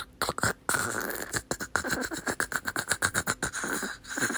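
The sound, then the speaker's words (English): A voice imitates window blinds rattling, making a rapid series of breathy, scraping bursts for a few seconds, with no words spoken. “I heard the sound of the blinds going”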